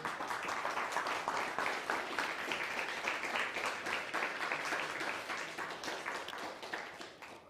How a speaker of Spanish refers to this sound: Vamos a aplaudir a la luz, ¿no? Aplaudir al Eterno que nos enseñó esta luz hoy.